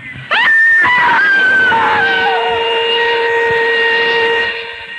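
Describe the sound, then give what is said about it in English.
A woman screams loudly and cries for help on Wayfield Common, with no one within a mile, her voice leaping up sharply and then holding a long, shrill, sustained cry for several seconds before trailing off, with no other voices. “A woman screamed and cried for help on the Wayfield Common but there was no one within a mile to hear her screams.”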